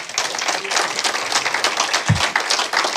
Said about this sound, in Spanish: Ahora dale un aplauso fuerte al rey.